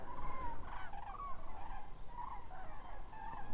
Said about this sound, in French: on entend les grues. elles sont prêtes, elles vont passer juste au-dessus. Waouh!